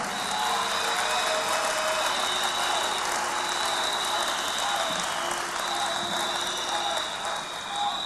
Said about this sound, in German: Was ich mich frage ist, was ich mich frage ist, warum ihr diese Diskussion verweigert. Warum verweigert ihr mit Drillerpfeifen diese Diskussion?